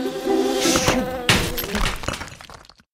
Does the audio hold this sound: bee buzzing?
yes